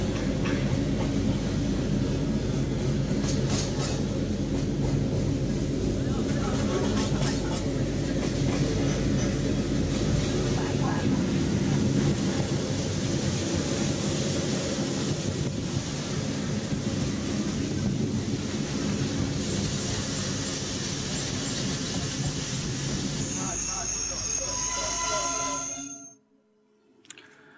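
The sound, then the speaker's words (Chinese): A freight train of the kind people hopped aboard to ride without paying, called 'bahuangche', rumbles steadily along the rails for nearly half a minute, a dense low roar with clattering wheel noise and wind buffeting, before cutting off abruptly near the end. “因为要扒这个火车的时候，他没有钱，他们只能坐这种火车，叫扒过去叫扒荒车，扒荒车，”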